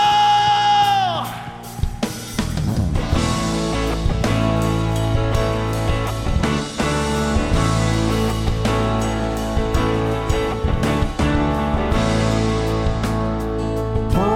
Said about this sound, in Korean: 우리를 구원하시고 우리의 협착한 시선을 넓혀주시고 우리를 향한 주의 뜻을 온전히 이루실 우리 주님께 감사와 영광의 박수 올려드립시다 할렐루야